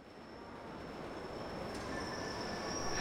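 A metro train on Milan's yellow line, at Sondrio station, rumbles along the rails, its wheels letting out a steady, piercing high-pitched squeal that grows louder over a few seconds, with no one speaking.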